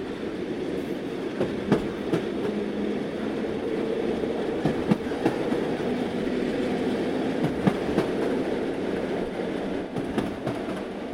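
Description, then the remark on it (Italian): A freight train bound for La Spezia rolls steadily along the rails, its continuous low rumble broken by irregular clacks of wheels over track joints, with no voices. “Petrini, Zave e Giorgi però sono esperti fuggiaschi, riescono a far perdere le loro tracce e a nascondersi su un treno merci diretto alla Spezia.”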